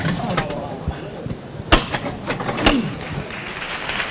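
A crowd gathered behind barriers applauds steadily as the Gran Poder float is raised, a dense crackle of many hands clapping with a few sharper claps standing out, while voices murmur and call out underneath.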